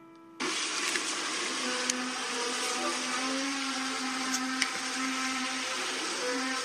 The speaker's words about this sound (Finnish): Joo. Tuommoista ääntä. Ja se on vastaava ollut myös Helsingissä, eli tämmöistä isoa niin kuin jotain metallista laitetta revittäisi ympäri pihoja, kaikuu.